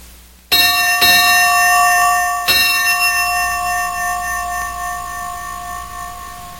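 A bright bell, used to tell the time aboard a ship, is struck three times, two quick strokes followed by a third after a short pause, and its loud metallic tone rings on and slowly fades. No one speaks.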